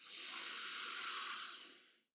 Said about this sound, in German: Und jetzt lade ich dich ein, die Augen zu schließen. Immer tief zu atmen